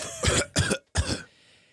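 Three quick, harsh coughs in close succession, loud, with a brief pause before the last one and a faint breathy tail after.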